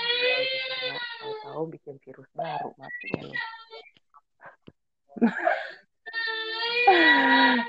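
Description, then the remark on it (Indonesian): A baby who has just woken up cries in loud, drawn-out wails: one long cry at the start, broken sobbing sounds, a pause, then another strong wail at the end. “anak gue udah bangun.”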